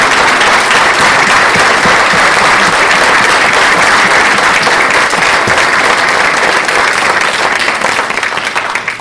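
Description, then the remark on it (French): Sustained audience applause, a dense, loud wash of many hands clapping steadily for the full nine seconds, tapering slightly at the very end with no voices over it, given in recognition of a member's six years of service on a departmental assembly. “et que je vous demande d'applaudir en reconnaissance et en remerciement pour son engagement sans faille pendant six ans.”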